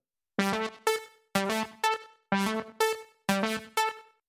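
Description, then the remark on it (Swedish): A Prophet-5 programmable analog synthesizer plays a repeating riff of bright, buzzy chord stabs, four pairs of short notes in a steady rhythm, loud with no voices. “Prophet 5 eh, Ja, precis.”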